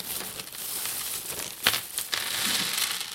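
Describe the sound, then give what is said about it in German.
A plastic crinkle bag from a board game's components crinkles and rustles continuously for a few seconds, with brighter crackly bursts partway through and a steady, moderately loud texture, no voices present. “Mal, diese Knistertüte ist aber nicht original.”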